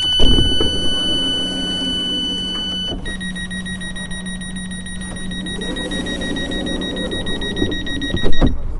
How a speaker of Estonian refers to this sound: kõrva torkab aga esmajärjekorras uste avamise ja sulgemise heli